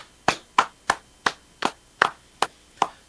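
About eight sharp hand claps from the show's hosts clapping to end the show, in a steady, slightly uneven rhythm, crisp, with brief silences between them and no talking.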